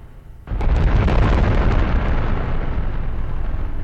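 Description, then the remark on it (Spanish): A sudden massive explosion bursts in after a quiet moment, then a sustained deep roaring rumble with crackling debris continues loudly to the end: the 1815 eruption of the Tambora volcano in Indonesia, which blew more than 1,000 metres off the top of the 4,000-metre volcano. “Eso fue la erupción del volcán Tambora en Indonesia en 1815.”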